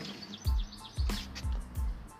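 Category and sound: bird, blackbird singing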